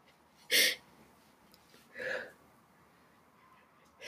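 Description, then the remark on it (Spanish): Short, sharp sobbing gasps break the quiet about every second and a half, three catches of breath in a row with a hiccuping quality. They sound fairly loud, with no words spoken. “Y aunque tú me veas llorar ahorita, o me escuches llorar, estoy muy feliz haciendo esto.”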